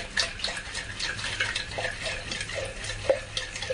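Water is put into a container and swirled around to rinse it, splashing and sloshing with soft irregular clinks, moderately quiet, without any talking.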